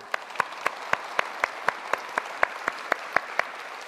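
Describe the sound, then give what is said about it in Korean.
An audience claps for themselves together in a steady, even rhythm, about four sharp claps per second, over a constant wash of scattered clapping. No one speaks. “여러분 스스로를 위해서 한번 박수해 주시죠.”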